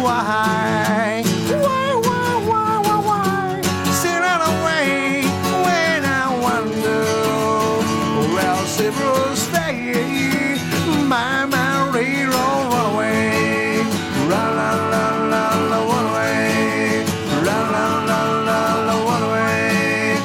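An upbeat 1960s pop-rock song plays at steady volume, with a lead vocal melody over guitar, bass and drums driving a bouncy rhythm throughout, with no talking over it.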